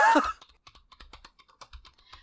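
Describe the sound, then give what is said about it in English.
A short breathy vocal sound, then a burst of rapid, irregular keystrokes on a mechanical computer keyboard, each click sharp and fairly loud, about a dozen taps in two seconds. “I don't know why you type so loud then.”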